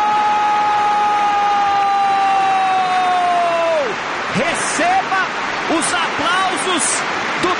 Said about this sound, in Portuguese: torcedor rival. Está de pé! receba aplauso, receba o nosso aplauso.